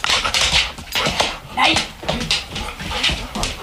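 A married couple's dogs run around in circles on a living room floor, claws clicking and scuffing in quick irregular bursts, with some panting mixed in.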